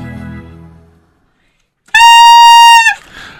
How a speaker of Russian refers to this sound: И Программ... мы сейчас всех разбудили, мне кажется. Мы сейчас всех разбудили, потому что это был звук саксофона.